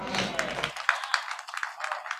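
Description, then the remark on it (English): An audience claps together for the Lord Jesus, a dense, steady patter of many hands with a few sharper claps standing out. A voice trails off just as the applause takes over. “Clap for the Lord Jesus.”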